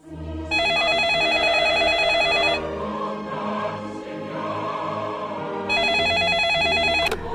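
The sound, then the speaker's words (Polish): A telephone rings twice, each ring a long, bright electronic trill lasting about two seconds, with a pause between them and a low steady hum underneath. The call is from a police duty officer to a commissioner. “Komendant z Nowej Soli mówi, żeby do pana dzwonić.”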